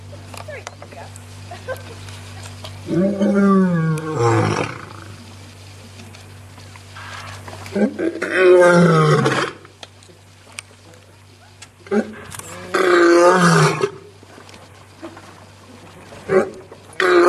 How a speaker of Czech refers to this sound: A teď, než budeme pokračovat, můžeme se podívat na krátké video, krátké ukázku, jak lev vydává řev.